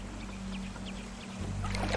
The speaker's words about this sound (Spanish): El hombre los lleva en una lancha por el agua.